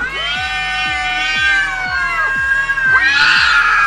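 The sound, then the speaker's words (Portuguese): A cat screeches in two long, drawn-out caterwauling yowls with wavering, sliding pitch, loud and close, the second cry shorter and harsher after a brief pause. “Agora quem chamariam pra emular a … então? Um gato morto.”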